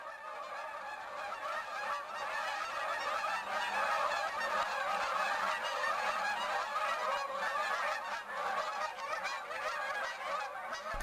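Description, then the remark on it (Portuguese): A flock of wild geese honks continuously, many harsh, overlapping calls forming a dense, steady chorus that fills the whole stretch without pause. “Chama-te como os gansos selvagens, ásperos, excitados, anunciando o teu lugar várias vezes, repetidamente, na família das coisas.”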